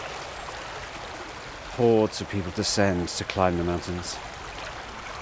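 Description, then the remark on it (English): A steady wash of flowing water from the River Usk, in the deep Usk Valley between Abergavenny and Usk, runs throughout at moderate level, with a man speaking clearly in the foreground for a few seconds over the continuous rushing. “Um, I mean, I'm basically the River Usk, I'm in the deep Usk Valley between Abergavenny and Usk.”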